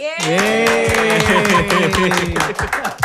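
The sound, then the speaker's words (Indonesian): Audience applause: a dense, steady burst of many hands clapping for about three seconds, loud, with a sustained voice-like tone held over the claps. “Jadi tepuk tangan lagi buat.”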